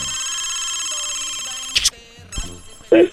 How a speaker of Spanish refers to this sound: A ver, suena el teléfono ahí. Sigue sonando, sigue sonando.